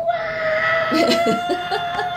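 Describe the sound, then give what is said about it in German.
A person lets out a loud, sustained battle cry in the style of a ninja, one long strained yell held for a couple of seconds, slightly bleating in tone. “Ja, also wenn ich diesen, diese Schnur erwürfle, muss ich zwar den Ninja ein, ähm, runtersetzen, aber gleichzeitig darf ich auch mit einem riesigen Ninja schreien.”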